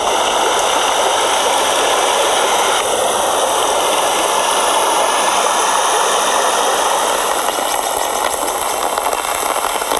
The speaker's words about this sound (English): This is mainly water and dry dr rain sound from underneath an umbrella that I was holding.